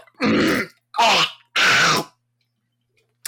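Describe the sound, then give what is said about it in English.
Three loud vocal bursts in quick succession, rough grunting and throat-clearing as someone warms up their voice before singing, each about half a second long, followed by silence. “No, that's just my warm up.”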